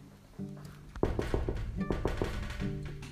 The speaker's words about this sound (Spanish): Liebre golpeó por la ventana.